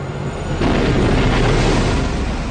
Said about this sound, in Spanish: Estallan truenos y relámpagos. Y la fuerte lluvia cae incesante. El agua cae del cielo a torrentes.